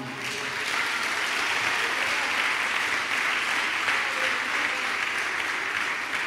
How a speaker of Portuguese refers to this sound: Aplauda ao Senhor por isso aí, irmão.